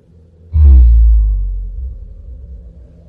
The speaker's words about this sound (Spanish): suelo se cimbró de pronto. La casa tembló por un segundo y luego escuchaba algo allá afuera, algo a lo lejos.